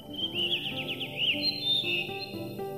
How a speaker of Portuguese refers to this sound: O protagonista da nossa aventura selvagem de hoje chama-se Melro das Rochas. É esse o seu nome comum.